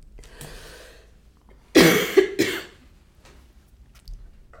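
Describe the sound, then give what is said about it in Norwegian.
A person coughs, a short burst of two or three harsh, throaty coughs in quick succession, followed by quiet breathing and faint room noise. “Jeg må bare hoste. Det er sinnssykt.”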